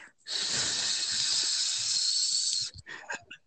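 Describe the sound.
A voice imitates the sound a professor made, like something deflating: a long, steady hiss lasting over two seconds, bright and fairly loud, then trailing off into a few short, breathy bursts.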